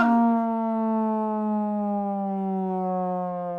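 An alarm siren sounds as one steady, harsh, buzzy tone, holding a nearly constant low-mid pitch for about four seconds at fairly even loudness, with no voices.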